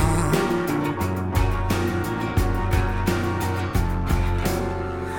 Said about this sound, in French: Mais d'abord, on fait une petite pause musicale.